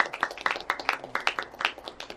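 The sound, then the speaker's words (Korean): A small audience at a live music event claps steadily for a couple of seconds to welcome a performer, a quick, irregular patter of many hands at a fairly soft level. “마이크도 직접 들어오시고 박수 부탁드립니다.”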